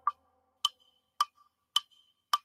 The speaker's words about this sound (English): And there was no sound at all, but the clock upon the wall